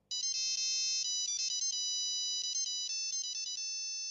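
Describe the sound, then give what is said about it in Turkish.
A phone ringtone plays clearly on its own as a call is being placed, a bright electronic melody of quick trilling notes arriving in repeated bursts with short gaps between them. “Akif Kumaşçı'nın telefonu çalıyor.”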